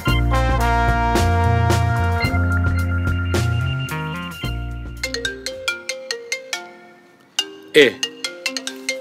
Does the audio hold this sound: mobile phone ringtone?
yes